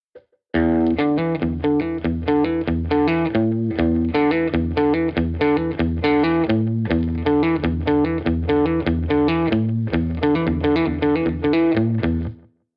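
A distorted electric guitar plays a warm-up exercise riff for hammer-ons, a fast, repeating riff of quick hammered-on notes in a steady rhythm, loud and continuous for about twelve seconds with no voices.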